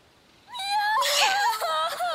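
Three kittens in a cardboard box make several thin, high-pitched mews that overlap in quick succession. The mews are fairly loud and waver up and down in pitch for about a second and a half, with no talking.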